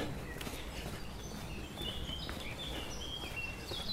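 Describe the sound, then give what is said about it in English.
Blackbirds sing in the early morning among trees and grass, several fluting whistled phrases over a steady outdoor background of low rustling and footstep-like noise; no one speaks. “Blackbirds singing in the early morning.”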